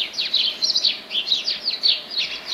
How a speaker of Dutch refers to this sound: En dit is dan weer een mus.